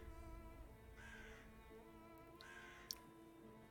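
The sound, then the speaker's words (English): Crows circling overhead caw in a few harsh, ragged bursts, spaced apart over a steady low rumbling background, with a sharp click near the end; no one speaks. “You can hear the crows overhead that Evelyn pointed out.”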